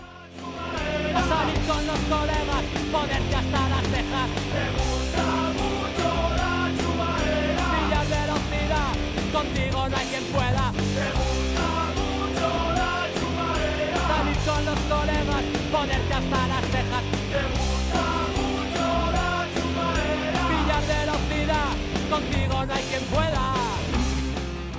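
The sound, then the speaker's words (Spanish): A loud, dense rock song by a band from Avilés plays steadily in the background throughout, with driving drums, distorted guitars and full-band instrumentation filling the whole stretch without pause. “Desde Avilés, los que suenan de fondo, …, eran la cuarta confirmación.”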